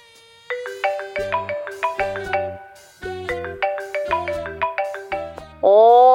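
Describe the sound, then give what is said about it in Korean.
A melodic phone ringtone for an incoming call from an uncle plays two repeating phrases of bright synthesized notes over a pulsing bass line, loud, ending in a sustained rising tone. “삼촌인데 전화가 오면 저는 일하다가도 나가야 되고요”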